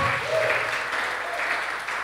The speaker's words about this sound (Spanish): Denles un fuerte aplauso.